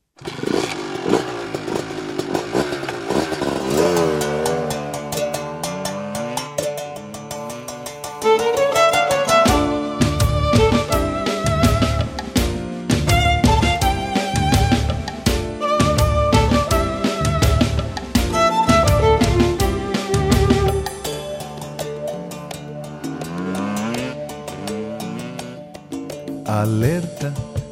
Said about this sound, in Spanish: Escucharemos a continuación …, interpretado por … y grabado en 1999.